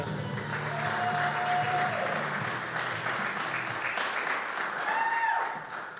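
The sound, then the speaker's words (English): A church audience applauding in praise of the Lord in a dense, steady wash of clapping for about six seconds, with a couple of high sustained whistles and faint lingering music tones at the start. “Come on, give the Lord another praise.”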